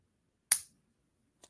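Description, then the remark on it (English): A single crisp finger snap rings out in an otherwise quiet moment during a card trick, followed about a second later by a much fainter small tick. “Anytime you like, uh, just snap your fingers.”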